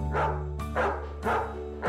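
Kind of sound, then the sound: animal, dog barking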